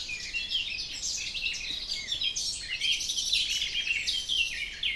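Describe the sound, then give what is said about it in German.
Many birds chirp and sing at once in a forest around a tree house balcony, a dense, continuous chorus of bright high-pitched calls overlapping from several directions, with no voices. “Die Vögel singen.”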